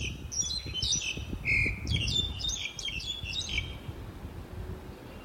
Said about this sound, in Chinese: 现在你听到啊，这个这只鸟很爱唱歌，而且它唱歌好好听哦。你有办法知道这是什么声、什么样鸟的声音吗？这只的鸟的名字啊，叫做乌岭两鸟。乌岭两鸟哈，它出现在哪里呢？它出现在我们淡水的某一个公园里面。